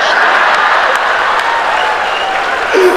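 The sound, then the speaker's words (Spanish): Loud, steady audience applause fills the whole stretch, a dense wash of many hands clapping with a few sharper claps poking through and faint crowd murmur underneath. “Fuerte aplauso”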